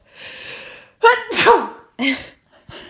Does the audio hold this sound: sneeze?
yes